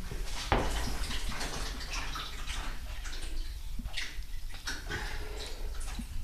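Liquid sloshes back and forth in shallow tanks rocked by hand, an uneven wash of splashing and lapping up close, with a sharp knock near the start and no voices.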